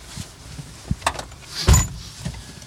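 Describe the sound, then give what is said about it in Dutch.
Someone climbs into a service car full of equipment: a few brief clicks and rustles, then a heavy door thump, followed by quieter interior shuffling. No one speaks. “neemt me mee in zijn dienstwagen.”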